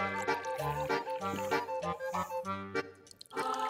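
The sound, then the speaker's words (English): Someone sips water through the straw of a cyclist-style water bottle during a water break, making continuous wet, gurgling slurps with rhythmic sucking pulses for a few seconds and no talking. “Ah, do a little straw action.”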